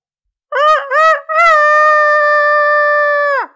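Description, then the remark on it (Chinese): A human voice imitates a rooster's crow as a head-resonance voice exercise: two short, clipped syllables, then one long, loud, steady note that falls off sharply at the end, delivered alone with no other talk. “如果想练习更高位置的头腔共鸣，可以学公鸡叫。啊，学公鸡叫，我要离话筒远一点哈，因为这个声音比较响。”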